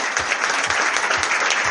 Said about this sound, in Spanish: Fuerte la aplauso de los chicos.